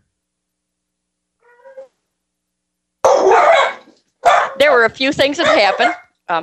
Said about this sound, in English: I don't know if you can hear my dogs barking. Yeah, no problem at all. I'm gonna let them out.